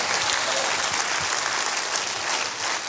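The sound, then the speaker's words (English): A crowd claps hands in a dense, steady wash of applause, loud and sustained for the whole stretch with no clear individual beats and no voices standing out. “Clap your hands real big and say, I'm all in.”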